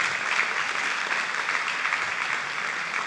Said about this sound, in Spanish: Démosle una ofrenda de palmas al rey.